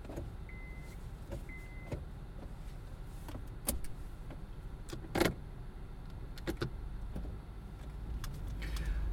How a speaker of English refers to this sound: just in my car driving back home from our second outing.